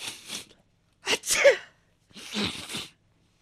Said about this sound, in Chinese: 最近呢，天气降温特别的快，我这个家里的另一半不负众望的又感冒了。昨天晚上我就在家看电视嘛，他就坐在一边打两个喷嚏